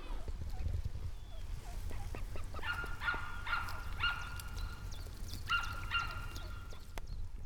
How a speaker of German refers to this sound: Also wenn man ganz genau hinhört, ähm, dann hört man das, glaube ich, wie die Enten schnattern und quackern und essen und fressen.